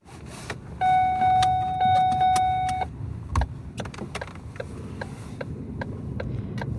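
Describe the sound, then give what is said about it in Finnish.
A car is started: sharp mechanical clicks and a steady electronic chime, then a low engine rumble that carries on at a constant level as it is driven along a winding road toward motorway lights on a freezing, starry, moonlit winter night. No one speaks. “Kuu paistaa, kun ajan mutkittelevaa tietä kohti moottoritien valoja.”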